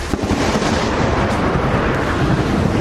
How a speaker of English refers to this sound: Lightning strikes right outside the White House the moment it happened.